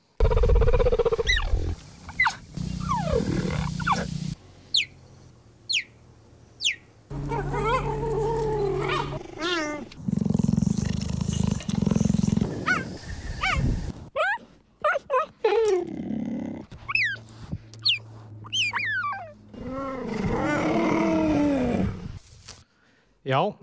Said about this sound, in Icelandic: Hvaða kattardýr, hraðskriðasta landýrjarðar, gefur frá sér þessi nokkuð undalögu hljóð? Uh, Hleparði. Blettatígur, segju. Já, það er blettatígur.